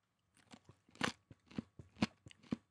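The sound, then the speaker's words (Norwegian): Crunchy chewing of cartilage, with sharp irregular crunches roughly every half second, loud with no talking. “Altså, det er jo, det er jo, det er jo knasende.”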